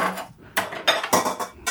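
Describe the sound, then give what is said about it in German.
A kitchen scale and bowl are lifted away partway through mixing, with a few sharp clatters and knocks of kitchenware coming in quick irregular bursts with no talking. “Ach so, die Waage können wir jetzt wegnehmen. Äh, ich heb mal hoch.”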